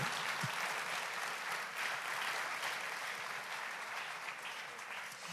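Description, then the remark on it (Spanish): A church audience applauds steadily for the whole stretch to welcome a couple called to the front, a dense, even wash of many hands clapping at a moderate level with no voices standing out. “Nada, que eso aplaudíamos increíble.”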